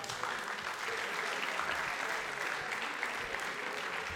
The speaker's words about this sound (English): So we're now going to take a look um, at those memories through the years. Round of applause for all those memories, y'all.